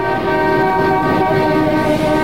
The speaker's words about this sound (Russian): Это действительно метро.